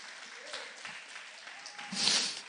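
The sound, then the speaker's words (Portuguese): An audience applauds the name of the Lord Jesus, a dense wash of many clapping hands that swells louder toward the end, with no speech over it. “Se você quiser aplaudir o nome do Senhor Jesus, você pode fazer isso.”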